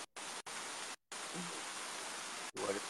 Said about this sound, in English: it is like white noise